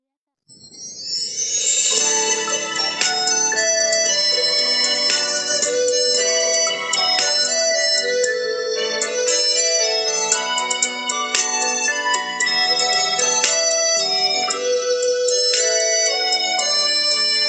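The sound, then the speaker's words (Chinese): A song plays at a steady, fairly loud level, its bright melody moving through ringing, bell-like notes with rich harmonics for the whole stretch, with no one talking over it. “首先，我们先听一下这首歌。”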